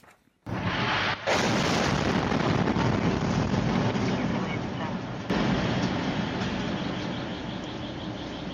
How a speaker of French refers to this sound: Selon les secours, cette frappe russe a tué 33 personnes. On regarde les images de l'explosion filmées par euh, la caméra embarquée d'une voiture.